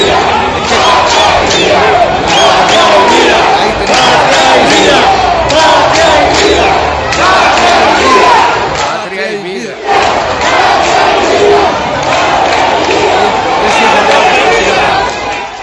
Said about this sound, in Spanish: Gritos de libertad y abajo la dictadura como nunca desde el año 1994. Sí, y además eh, el grito es patria y vida, porque el grito de la revolución patria o muerte, ¿no?